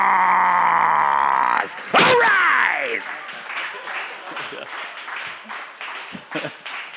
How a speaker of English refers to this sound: So make some noise with me because we're looking for the loudest fans in Arcadia because it's time for a Rad Dad's T-shirt talk.